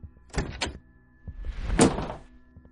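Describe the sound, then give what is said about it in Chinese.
A child opens her mother's bedroom door at night in a newly bought apartment: two quick latch clicks, a short pause, then a longer rushing swish as the door swings, with a soft thump at the end. No one speaks. “他难以忍受，就跑下床，打开了妈妈的门。”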